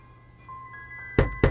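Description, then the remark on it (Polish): An audio game's wall cue: a steady electronic tone hums, then shifts slightly higher, followed by two quick, loud thuds close together, marking the wall on the right as the player walks east. No one speaks. “Tu są dźwięki, które oznaczają ściany.”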